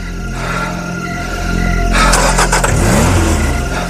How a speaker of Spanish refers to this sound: Después regresó a su coche y se marchó.